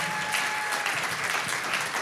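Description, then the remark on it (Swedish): A live audience claps steadily to welcome a guest up to the front, a dense wash of many hands at a fairly loud, even level with no voices standing out. “Så en stor applåd”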